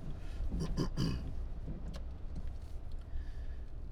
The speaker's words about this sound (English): I say that right now in a car uh, that keeps me uh, dry in this. It's raining today, by the way. Just it's kind of a nice rain. It's kind of a light sky rain.